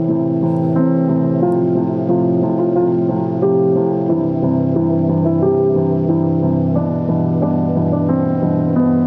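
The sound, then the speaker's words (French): A steady, loud instrumental music bed with sustained harmonic tones and a constant low bass, playing continuously without vocals, like the opening bars of a hip-hop track. “Alors c'est un son de toi, Oudia, qui s'appelle …. Je lance le son et on revient juste après.”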